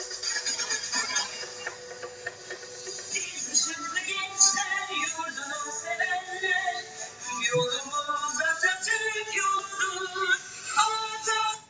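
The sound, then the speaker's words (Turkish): A remixed school anthem plays at steady, moderate volume, its melody carried over dense electronic backing with a slightly thin, tinny tone and no voices talking over it. “o zaman ben size çalıyorum. E, Işık Marşı.”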